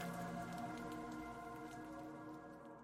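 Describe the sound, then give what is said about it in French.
Steady, soft evening rainfall beside the périphérique ring road hisses without pause, with faint scattered drop ticks and a continuous low droning hum beneath it. No one speaks. “Comme la rencontre entre une femme seule et un chat, un soir sous la pluie, le tout en bordure du périphérique.”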